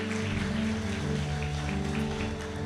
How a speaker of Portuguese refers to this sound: Aplauda o Senhor, pode assentar no seu lugar.